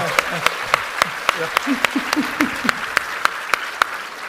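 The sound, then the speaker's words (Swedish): A small group claps in a steady, fairly sparse rhythm of sharp, distinct hand claps for about four seconds, with faint voices murmuring underneath, applauding a competition held as break entertainment. “Eh, en applåd för min tävling.”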